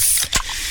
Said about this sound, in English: Oh, yeah, that's the sound of a freshly opened fizz filled Pepsi.